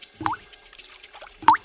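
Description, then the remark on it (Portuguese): Two clear teardrops plink into the water of a park pond, about a second apart, each a short bright bloop with a rising tone like raindrops. Quiet, with nothing else but faint background hiss. “As lágrimas desciam pelas suas feias bochechas e caíam na água, produzindo um som de gotas de chuva.”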